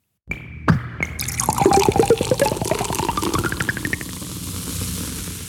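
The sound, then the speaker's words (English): A sharp Coca-Cola bottle cap pop, then the soda pouring into a glass with a gurgling tone that rises in pitch as it fills, ending in a soft fizzing hiss; the Coca-Cola "Pop and Pour" sonic logo used in advertising. Clear, with no voices. “It is the Coca Cola Pop and Pour.”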